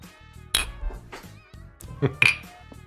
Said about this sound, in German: Kann man eigentlich den Eis kann man hören, ne? Das kann man mit Sicherheit das hören, ist, ja.